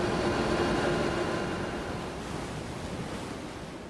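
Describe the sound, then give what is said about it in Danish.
Loud, steady helicopter cabin noise in flight over the North Sea: a dense, unbroken engine and rotor roar with a faint hum running through it, easing slightly halfway through and continuing with no voices. “Der er så meget larm, at vi kan ikke rigtig øh, samtale undervejs”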